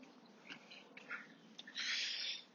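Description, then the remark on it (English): A dog being walked by a woman snuffles and pants, with soft rustling movement between short breathy bursts and one longer, louder exhale near the end; no one speaks. “and uh, a lady I don't recognise there walking a dog sent out, no doubt, to try and get me”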